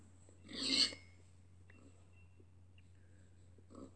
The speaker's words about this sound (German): Hm, die Schweine.